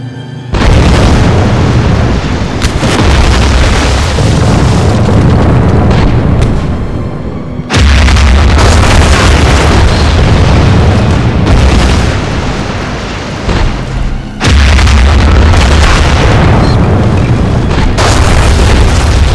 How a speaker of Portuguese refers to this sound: mas no dia 21 de fevereiro de 1916, às 7 horas e 15 minutos da manhã, começou o inferno para os franceses. Um verdadeiro dilúvio de projéteis de artilharia varreram as posições francesas. Os alemães utilizaram um milhão de projéteis naquele dia.